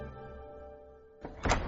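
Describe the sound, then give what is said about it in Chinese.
A closet door bangs open after a steady low hum: a short rattling knock followed by a louder, sharper bang, with no voices. “壁橱门砰的一声打开了”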